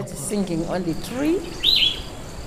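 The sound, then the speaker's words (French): A single clear bird chirp whistles out briefly after a stretch of low murmuring voices, with a soft outdoor hiss underneath, heard from the bank of a river. “J'écoute les oiseaux chanter depuis là.”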